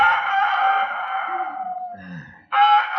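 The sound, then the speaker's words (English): A rooster on a farm crows loudly, one long drawn-out call that fades, then a brief throaty sound and the start of a second crow cut off at the end. No talking. “Oh, I could have slept if it hadn't been for that darn rooster.”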